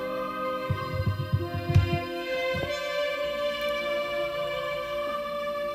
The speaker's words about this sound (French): Mais ça, ça, il a fait carrément au clavier. C'est tous les sons de clavier, ça. Même les chœurs derrière.